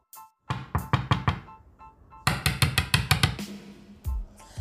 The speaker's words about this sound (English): When he got to the house, the hungry wolf knocked the door.